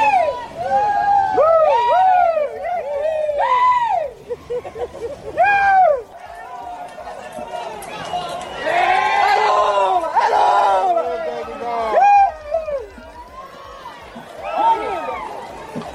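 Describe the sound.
A large crowd shouts and chants outdoors at the 'jeguiata do Bozo', singing for the President of the Republic as he passes riding his donkey. Many voices overlap in loud, rising and falling calls that carry on without a break, energetic throughout.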